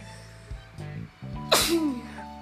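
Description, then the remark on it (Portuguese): A single sharp sneeze bursts out around the middle, a bright noisy blast followed by a short falling vocal tail, with faint low hum and brief voiced sounds before it. “Saúde para mim.”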